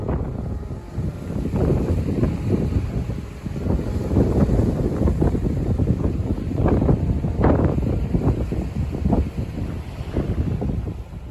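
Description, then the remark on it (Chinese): Strong seashore wind roars and buffets the microphone over the low rumble and wash of waves at the beach behind Gongtian Temple in Baishatun, a place known for its wind. The sound is a loud, continuous, noisy texture with gusty surges and no voices. “其实它是在白沙屯。呃，拱天宫后面海边的声音，哦，是我之前到白沙屯的时候在海边录的。”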